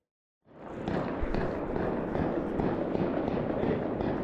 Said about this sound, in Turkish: Sürekli silah sesleri var.